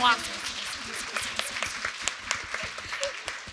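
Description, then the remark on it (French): A crowd applauds steadily for a few seconds, a dense wash of many hands clapping at once, moderately loud, with a brief voice at the very start. “Belle main d'applaudissements encore pour toi.”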